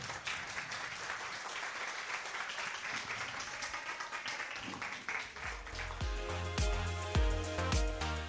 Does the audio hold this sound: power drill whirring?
no